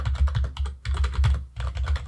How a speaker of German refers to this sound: ja, okay, bei dir vibriert der ganze Tisch noch mit dazu. ja, aber gut, das ist ja mit einer mechanischen Tastatur, die klingt halt.